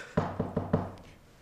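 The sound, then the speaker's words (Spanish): Four quick, solid knocks on a door in a steady rhythm, moderately loud, followed by a short stretch of quiet. “Adelante, la puerta está abierta.”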